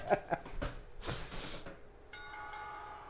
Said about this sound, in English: The sound of that bell means the bid has died.